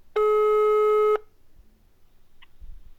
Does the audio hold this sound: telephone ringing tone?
yes